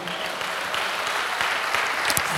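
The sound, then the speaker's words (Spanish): A church audience claps for God steadily in a dense, continuous wash of applause that holds at an even loudness throughout, with no voices rising above it. “¿Cuánto le dan un aplauso a Dios por eso, amado hermano?”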